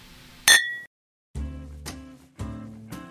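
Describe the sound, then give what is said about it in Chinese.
Glasses clink once in a toast, a bright, ringing chime that fades within a moment. After a short silence, three loud musical chords sound in steady succession. “为你干杯，为你干杯。”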